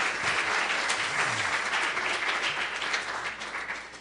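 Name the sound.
loud audience applause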